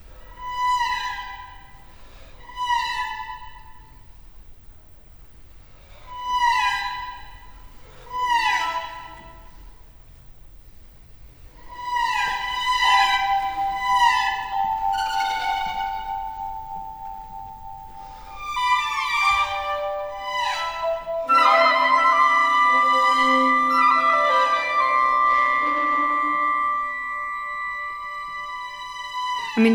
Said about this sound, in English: listen to what the flutes are doing over top the cellos